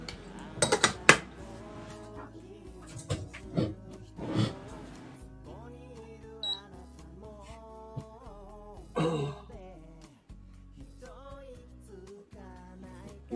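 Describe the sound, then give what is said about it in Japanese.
A few sharp metallic clinks and knocks as a kettle of recently boiled water, now at 89 degrees, is handled and set down for making coffee, scattered irregularly over a quiet background, with faint murmuring voice-like tones in between. “すごいさっき沸騰させたのにもう温度が89度になっております89度でいきましょう”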